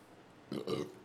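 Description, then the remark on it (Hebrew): A single short burp, fairly loud, with a brief croaky two-part rumble lasting about half a second against a quiet background. “זה בסדר, מאז ריק אנד מורטי מותר לעשות גרפסים בכל מקום, זה בסדר.”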